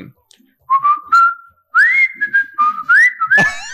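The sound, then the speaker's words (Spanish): Someone whistles the cheerful, bouncy theme tune of The Andy Griffith Show: a short rising phrase, a pause, then a longer run of sliding, held notes, clear and fairly loud with no talking over it. “Hay una cancioncita hay una cancioncita también de un programa que se llamaba The Andy Griffith Show, que empezaba así como decía...”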